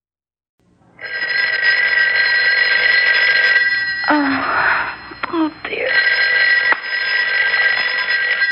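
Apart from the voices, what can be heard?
telephone ringing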